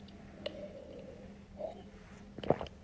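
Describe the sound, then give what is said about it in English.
Water gurgles in a mouth during a microphone test: a few short, wet, bubbly bursts spaced apart, the last one loudest, over a faint steady hum. “yeah, you get a variety of levels of the water and the mouth and the gurgling sounds.”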